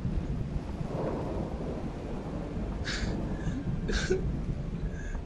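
Steady, roaring stormy wind under black storm clouds fills the scene with a dense low rumble, while a few brief higher gusts or rattles cut through near the middle and end.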